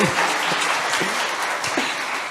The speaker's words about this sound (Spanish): Un aplauso a